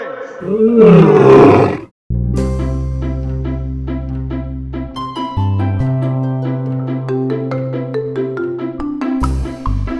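A loud, rumbling lion roar bursts out for about two seconds, then cuts off as a steady, melodic music bed with plucked notes and sustained tones takes over.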